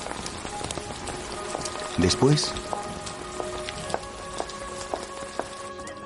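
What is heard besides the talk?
rain falling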